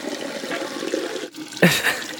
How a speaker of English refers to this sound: Toilet flush lit up. I'm looking for the good toilet sounds here.